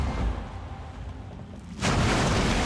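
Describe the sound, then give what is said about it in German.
A lifeboat in free fall crashes down onto water and does not capsize: steady low rumbling gives way to a sudden loud, heavy impact that swells into a continuous roaring wash of noise until the end. “Das Boot schlägt mit einem lauten Krachen auf dem Wasser auf.”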